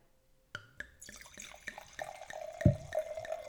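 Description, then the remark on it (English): Underwood wine pours into a glass, a steady splashing gurgle with a faint ringing tone, broken by a soft knock partway through. No one speaks. “So why don't you give me your glass so I can like pour that.”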